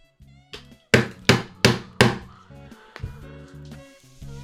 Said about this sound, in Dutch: Goed, ik ga geen flesje kraken. Ik heb hem niet helemaal leeg. Eh, ik denk ook niet dat ik hem helemaal leeg ga drinken. Dus ik ga gewoon tegen de tafel aan tikken ermee.